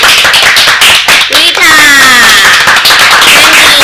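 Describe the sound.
Loud, dense applause fills the whole few seconds, many hands clapping at once, with a voice-like whoop sliding downward in pitch partway through.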